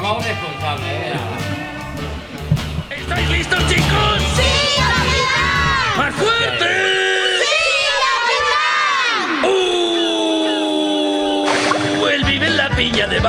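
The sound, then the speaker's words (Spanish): A radio program's lively theme tune plays throughout, with a group of children shouting and cheering over bright, bouncy music, loud and continuous, ending on a sustained, warbling melodic line. “Rufo, vamos, esa sintonía. Vamos a ver esa sintonía a dónde nos puede trasladar.”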